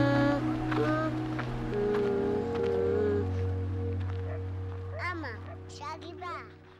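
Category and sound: nature, flowing river water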